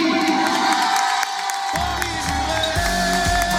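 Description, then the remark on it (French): A studio audience in the Fréquence Plus public studio cheers and applauds during a live radio broadcast, a dense, steady wash of clapping and shouts with a few whoops rising above it, holding loud from start to finish. “Applaudissements pour lui et merci d'être là jusqu'à 19h15.”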